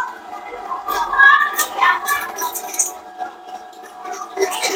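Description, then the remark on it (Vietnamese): An electric stainless-steel meat grinder runs steadily, a continuous whirring motor hum with a gritty, churning edge as it grinds pork, holding at a fairly even level throughout. “đấy cái này là em đang xay thịt heo máy này thì được làm bằng inox không dỉ nguyên con anh chị nhé inox hết cái này cũng là inox này”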